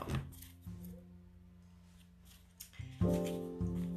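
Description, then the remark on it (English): A deck of tarot cards is shuffled before a Serenity Tarot spread reading, in several quick, crackly bursts of riffling, quiet, over a steady bed of soft, sustained background music with no talking. “All right one more shuffle and then we can start.”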